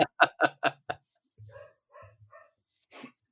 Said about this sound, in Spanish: Oye, saluda al perrito ahí que está ladrando también. Oye, el perro de mierda.